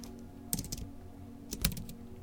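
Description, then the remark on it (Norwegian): Two short bursts of keyboard typing by someone sitting inside writing, a quick cluster of sharp clicks near the start and another near the end, with quiet low hum in between and no voices. “Han vet nok ikke at jeg sitter her inne og skriver.”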